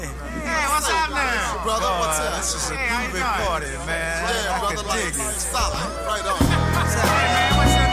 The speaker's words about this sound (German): es hört sich so an, als würden sich alle erstmal begrüßen auf dem Album.